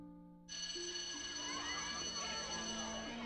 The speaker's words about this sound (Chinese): 铃声响起，下课了，活泼的孩子们。鱼贯而出。